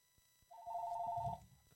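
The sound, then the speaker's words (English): A telephone rings once in a single steady, trilling burst lasting under a second, clear, with a faint low rumble beneath it and no talking. “As we got the sudden phone call.”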